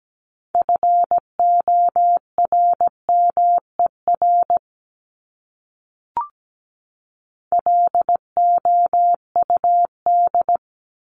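Crisp Morse code beeps at 17 words per minute spelling common English words, in a steady mid-pitched tone keyed in quick dots and dashes at a moderate pace. Two bursts of characters are split by a pause with a single soft click, and no one speaks.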